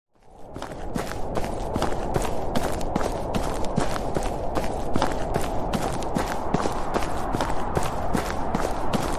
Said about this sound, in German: Im Winter knirscht auch der Schnee unter deinen Füßen